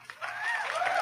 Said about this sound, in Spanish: Gritos, aplausos y silbidos.